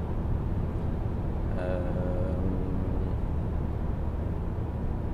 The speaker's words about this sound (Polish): Siedzę właśnie w samochodzie, jadę w stronę Przemyśla.